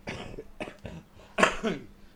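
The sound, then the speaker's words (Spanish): A series of rough coughs from a smoker, caused by tobacco, in short bursts, with one sharper, louder cough near the end, all alone without any talking. “Pero que tos más tonta, ¿no?”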